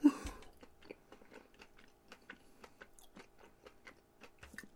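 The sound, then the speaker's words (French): Crunchy chewing of a dark-chocolate-covered peanut, a steady series of sharp crackling bites repeating about every third of a second, starting with a louder initial crunch, with no talking. “Le croquant, définitivement, c'est une. Une pinotte, mais elle est croquante sur un moyen temps.”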